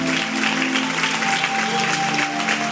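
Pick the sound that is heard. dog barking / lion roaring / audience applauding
audience applauding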